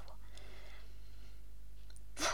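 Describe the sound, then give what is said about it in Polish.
Near-silence with faint background noise, then a brief sip of a drink right at the end, a short wet slurp with no talking. “Przepraszam, muszę zwilżyć karę.”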